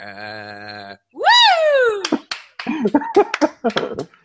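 A steady electronic tone and a rising, swooping vocal-like sound give way to a burst of sharp, irregular hand claps mixed with voiced sounds, fairly loud.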